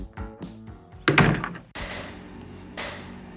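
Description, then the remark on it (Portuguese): A chair the speaker is sitting in creaks and thumps as someone shifts their weight, with several knocks and a louder clunk midway, followed by softer rustling movement. “Essa cadeira que eu tô, ó, fazendo mó barulhão.”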